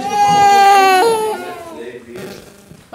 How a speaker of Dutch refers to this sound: Als we uitstappen, horen we al dat er binnen een kindje aan het wenen is.